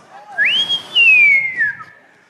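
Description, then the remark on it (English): A single clear whistle glides sharply upward, holds a high steady tone, then slowly slides back down over about a second, fairly loud with no talking. “The Holy Ghost will whistle”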